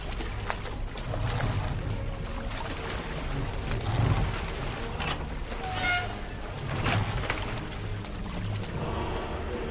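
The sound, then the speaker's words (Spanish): Water sloshing and slapping against a small wooden rowing boat rocked by waves made by a submarine, with creaks and gurgles as it rocks, a steady wash of sound with no voices. “las olas que produce el submarino hacen cobrar a la barca.”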